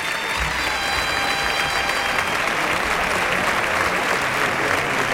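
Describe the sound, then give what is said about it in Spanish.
A large crowd at a bullfight in a bullring gives the picador a sustained ovation. The applause is a dense, steady roar of clapping that fills the whole stretch with no pause. “Bueno, pues el picador se lleva la ovación de la tarde eh, eh, ah, de, los, montados.”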